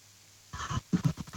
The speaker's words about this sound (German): Ich höre dich atmen.